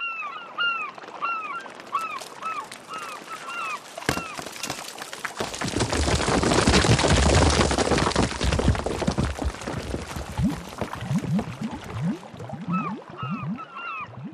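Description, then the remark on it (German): Cliff rock collapses into the sea: a sudden sharp crack, then a loud, deep roaring rumble lasting several seconds. Repeated seabird calls are heard before and after the fall. “So ähnlich musste es sich angehört haben, das Unglück, das sich in der Nacht vom 23. auf den 24. Februar 2005 in Rügen ereignete.”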